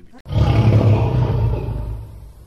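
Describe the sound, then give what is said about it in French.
A lion lets out a deep, loud roar that starts abruptly, rumbles heavily for about two seconds, then slowly fades. No voices accompany it. “Et le lion se réveille.”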